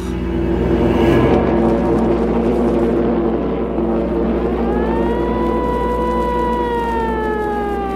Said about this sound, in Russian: Говорит штаб гражданской обороны. Воздушная тревога. Воздушная тревога.